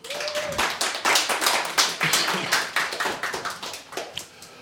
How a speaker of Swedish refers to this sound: Hon är väl värd en applåd.